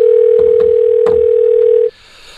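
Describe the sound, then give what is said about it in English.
A steady, loud telephone dial tone hums continuously for nearly two seconds as a call is placed, with a few faint clicks and taps beneath it, then cuts off abruptly into quiet line hiss. “I need to talk to someone. Um, And I'm calling in.”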